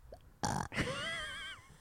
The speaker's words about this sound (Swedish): Eh, nu kan du rapa.